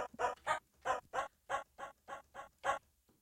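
A Yamaha electronic keyboard's dog bark sound effect fires about ten times in quick, fairly even succession, each short yelp bright, with no talking.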